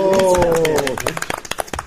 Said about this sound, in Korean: 우리 좀 박수.